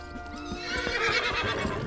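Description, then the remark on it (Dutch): A horse whinnies with a high, wavering neigh while its hooves clop in a steady rhythm as it travels to an inn, with no voices present. “Hij gaat dus met een eigenlijk gestolen paard naar een herberg”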